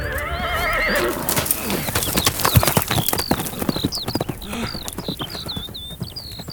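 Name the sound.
horse hooves clip-clopping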